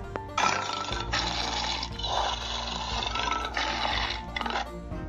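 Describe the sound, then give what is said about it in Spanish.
A loud splash of a lion falling into a deep well, followed by several seconds of churning, gurgling turbulence, rising and falling in waves with a low rumbling undertone; no one speaks. “Y se lanzó contra su rival, cayendo en el profundo pozo en el que murió ahogado.”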